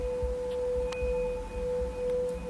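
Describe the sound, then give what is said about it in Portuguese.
A meditation bell rings during a guided breathing meditation, as a cue to return attention to the breath, in a long, steady sustain, its clear overlapping tones hanging evenly without fading. No voices, only a faint low rumble beneath the ringing. “Toda vez que você ouvir este sino, retorne a sua atenção, a sua respiração.”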